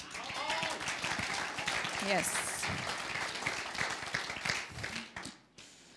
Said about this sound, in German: Loop, seid ihr noch dabei? ich habe euren Applaus bis hierhin gehört. Yes ihr, ihr stimmt zu.